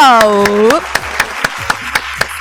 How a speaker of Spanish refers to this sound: Merecidísimo el, aplauso.